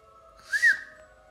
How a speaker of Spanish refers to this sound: Todos juntos se dirigían a Bonce, cuando el silencio nocturno fue interrumpido por un largo y escalofriante silbido